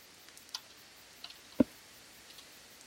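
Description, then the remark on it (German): Dice clatter onto a table: a few light, scattered clicks and one firmer knock, quiet, with no talking. The dice are rolled for a Perception check with advantage. “Einer von euch darf einen Perception-Check Perception mit Vorteil würfeln, da ihr euch gegenseitig unterstützt bei der Rast.”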